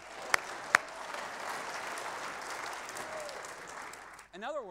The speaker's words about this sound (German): Ja, da können Sie klatschen.